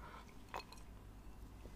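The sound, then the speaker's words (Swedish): A few soft, wet sipping sounds from a cup of organic rooibos tea with real vanilla, two quick ones close together and then another slightly louder slurp, with quiet pauses between and no talking. “Så ibland kommer lite klunkar sådär.”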